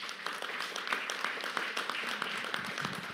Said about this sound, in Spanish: Amén. Denle un aplauso al Rey de la Gloria.